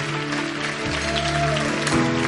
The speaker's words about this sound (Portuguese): Quantos podem dar um forte aplauso ao Senhor Jesus Cristo? Aleluia.